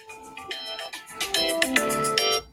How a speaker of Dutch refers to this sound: Oh, dat is mijn wekker.